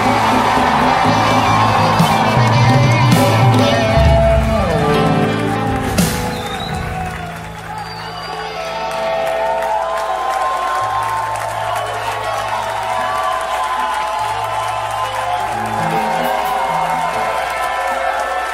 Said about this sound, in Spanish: Deme el grito más fuerte que tú puedas.